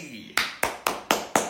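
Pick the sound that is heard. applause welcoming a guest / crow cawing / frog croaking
applause welcoming a guest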